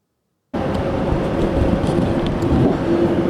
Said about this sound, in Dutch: Maar ik vond het wel eh, echt, het is wel veel stiller. Het is echt een rustiger vliegtuig, een kist. Heerlijk.